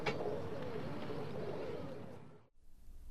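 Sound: pigeons cooing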